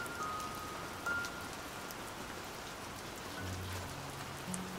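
Steady rain falls in an even, continuous hiss with soft patter on surfaces, fairly quiet, with no voices and only faint low tones drifting underneath.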